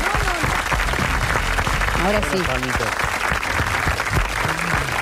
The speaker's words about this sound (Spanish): Pero que no le mezquinen palmas, que No, ¿eh? no le mezquinen.